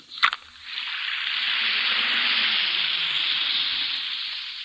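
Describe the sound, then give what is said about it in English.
An Alka Seltzer effervescent antacid tablet drops into water with a brief clink, then fizzes steadily in a bright, continuous hiss of bubbles for several seconds, with no voices. “Listen to it fizz.”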